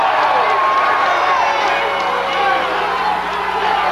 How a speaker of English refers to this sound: Listen to the crowd. Got him.